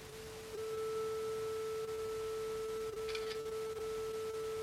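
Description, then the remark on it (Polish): A thin, steady electronic whine hums throughout, stepping up in loudness early on, with a brief crackly camera shutter click partway through and the tone continuing after. “i było słychać migawkę.”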